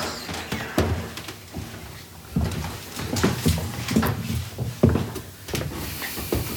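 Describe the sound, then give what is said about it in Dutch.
Several sharp wooden raps on a door, spaced irregularly over a few seconds, moderately loud, with faint rustling and room noise between the knocks. “Ik denk dat, dat ik even klop op die doe deur.”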